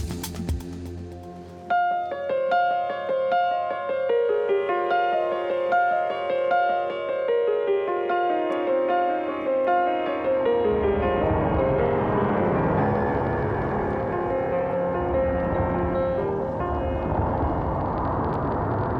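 Slow, sustained solo piano notes ring out in a gentle melodic line, joined partway through by a rumbling, rushing wash of noise that builds beneath the music. No one speaks.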